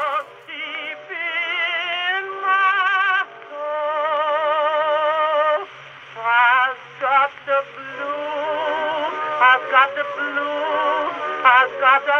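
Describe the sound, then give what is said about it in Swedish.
A short musical interlude with a wavering, sung-sounding melody over sustained tones, steady and fairly loud with brief gaps, sounding slightly thin and muffled, with no talking. “du ska dra lite musik, fylla på våra glas och så ska vi börja prata om denne man”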